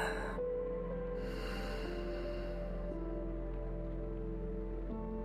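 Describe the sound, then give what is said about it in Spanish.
A soft, drawn-out breath out, airy and hushed, rising and fading over a steady, sustained musical drone that continues alone afterward. “Y exhala.”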